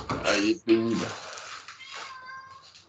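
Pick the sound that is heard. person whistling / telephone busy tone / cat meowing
cat meowing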